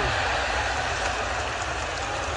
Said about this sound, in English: He's racing off the field. And uh, he'll get off the field before those that want to give him a hooter can do so. You can hear some booing which is really unfair. This has been one of the finest test innings you've ever seen,